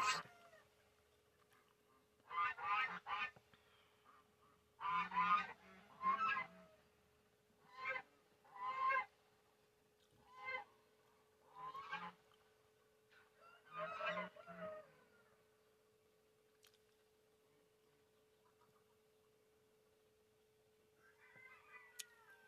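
Geese honk loudly, about ten harsh calls in a ragged series, sometimes doubled. Then a long quiet stretch with a brief, fainter call near the end.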